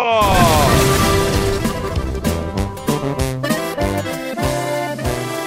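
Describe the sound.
A loud, punchy jingle for the radio station La Mejor FM 92.5: a drawn-out sung voice over bright music, punctuated by a series of sharp crashing hits that land in quick rhythmic bursts.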